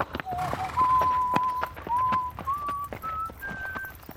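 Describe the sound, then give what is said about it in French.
Steady horse hooves clip-clop at a trotting rhythm while someone whistles a slow, clear tune of long held notes that step gradually upward, both moderately loud. “Avant d'enlever vos écouteurs et de partir euh, sifflotant sur votre cheval au soleil couchant”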